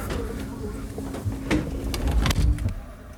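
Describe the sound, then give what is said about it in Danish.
The sliding door of train compartment number 61 rumbles along its track and shuts with a couple of solid clunks, while muffled voices murmur faintly in the background, as the train rolls out of Høje Tostrup station. “Så er det nummer 61. Ind med jer. Så, åh, så lukker vi døren.”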